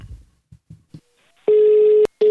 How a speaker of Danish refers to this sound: lad os ringe ham op og høre, hvad han har at fortælle.